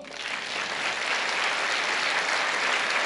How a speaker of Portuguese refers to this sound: Será que vocês estão me ouvindo mesmo, igreja? Então aplauda ao Senhor.